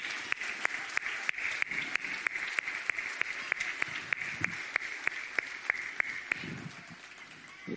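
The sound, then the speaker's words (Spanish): A church audience breaks into steady applause for children, a dense wash of many hands clapping with sharp, regularly spaced claps punching through, tapering off slightly near the end. “Bien, démosle un aplauso a estos niños.”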